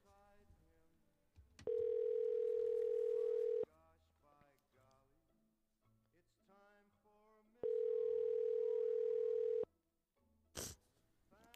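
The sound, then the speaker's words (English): A phone call's ringback tone sounds twice, each steady, loud two-second burst separated by a roughly four-second pause, with faint talking in the background between the rings. “says it's calling.”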